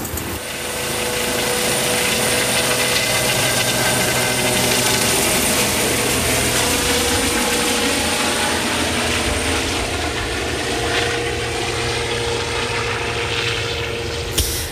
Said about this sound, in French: Hélicoptère qui s'éloigne en fin de journée et qui me laisse à la base de Colombay afin que je puisse revenir à la radio.